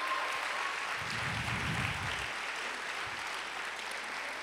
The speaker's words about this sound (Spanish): Entonces, ¿por qué no levantamos un fuerte aplauso a todos los campos de Horizonte? Un fuerte aplauso, bienvenida familia.